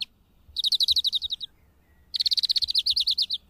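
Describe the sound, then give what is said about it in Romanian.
Two rapid bursts of bright, high chirping from a flock of European greenfinches, each a fast trilling run of repeated notes, separated by a short pause, with no voices present. “E foarte posibil ca un stol de florinți să se fi oprit pentru odihnă înainte de a continua hoinăreala după hrană.”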